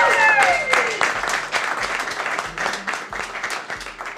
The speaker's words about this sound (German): Ja, und heute auch ein herzliches Willkommen an unser Live-Publikum hier in der Podcast-Brause, dem Live-Podcast-Event im Afterwork hier in Nürnberg. Ein Applaus, glaube ich, könnt ihr euch auch an der Stelle mal selbst geben.